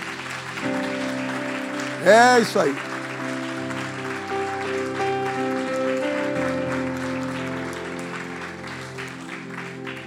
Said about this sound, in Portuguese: Você pode aplaudir o Senhor aqui nessa noite? Isso.